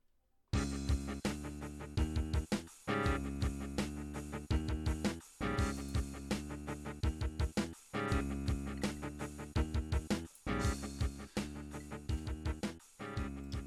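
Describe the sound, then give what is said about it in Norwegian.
A synthesized MIDI music track from the video game Doom plays loud, with bright, steady electronic notes over a regular, punchy beat, pausing briefly between phrases. No one speaks. “Vi spiller midi-låter først, tenker jeg, og så den ekte inspirasjonen etterpå.”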